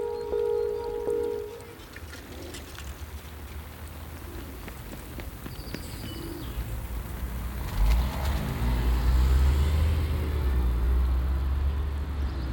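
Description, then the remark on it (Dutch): Cars roll past on a cobblestone street, tyres producing a steady rumbling hiss, with a heavier vehicle swelling near the end over continuous low road noise. “Het is uh, kasseien. Er is, er is al redelijk veel auto's.”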